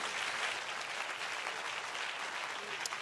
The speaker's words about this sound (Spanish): Si ese es el aplauso, de lo mejor.